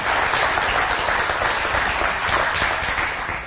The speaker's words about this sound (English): Can we give Jesus a round of applause for this man of God? Come on. Amen.